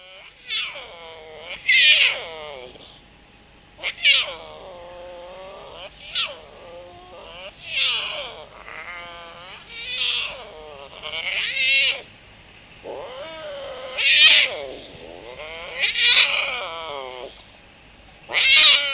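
A puma (cougar) gives a long series of high, cat-like whistling chirps and squeals, about a dozen rising-and-falling calls in quick succession, fairly loud with no talking.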